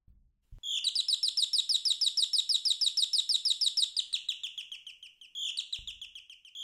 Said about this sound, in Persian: چقدر قشنگ شنیدن صدای قناریا توی جنگل به به حالا یکم به این صدای زیبا گوش کنین